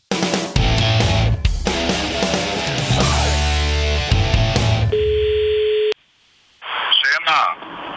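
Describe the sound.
After a loud stretch of busy, music-like sound, a steady electronic phone ringing tone sounds for about a second as a call is placed, then cuts off before a voice briefly answers on the line; the man answering is driving a car.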